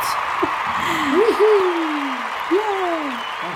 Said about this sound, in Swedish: Han får väl eh, klippa in lite applåder åt sig själv om han vill.